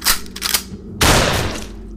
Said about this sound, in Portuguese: Eu vou dar um tiro de 12 nele.